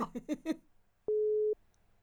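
A brief burst of talk, then a single steady telephone ringback tone, a clean mid-pitched beep lasting about half a second, heard clearly on an outgoing call made from the Røverradioen radio show.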